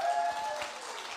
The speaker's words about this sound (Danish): Så, øh, så kan jeg jo lige klappe ham og klappe det band, der var på lige før.